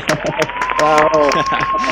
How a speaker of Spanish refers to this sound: aplausos de verdad, ¿no?